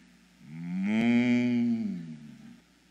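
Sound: cow mooing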